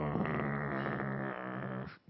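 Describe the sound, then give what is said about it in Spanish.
A dog named Firulais, put there to guard a supply, growls steadily and loudly for about two seconds, a rough, continuous rumble that cuts off abruptly at the end, with no talking over it. “pusieron un perro que se, le pusieron el nombre Firulais para que te cuide tu, tu, suministro de, esas cosas y nadie lo toque.”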